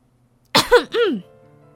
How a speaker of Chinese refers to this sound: 卡梅拉清清嗓子说